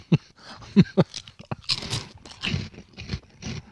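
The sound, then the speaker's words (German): Snack chips crunching with no talking: a few sharp, loud bites early on, then a denser run of crackly chewing that keeps going unevenly until the end. “dass man direkt wieder die Hand reinsteckt und noch so zwei, drei Dinger von den Dingern ist”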